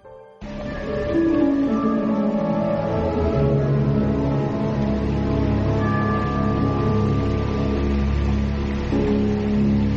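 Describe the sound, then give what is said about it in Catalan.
Steady rain falls in a continuous, even hiss that stays at the same level throughout, with sustained musical tones playing over it. “Es fa de dia, segueix plovent i la Guàrdia Civil no arriba”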